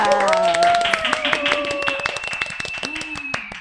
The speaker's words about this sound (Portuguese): Uma salva de palmas!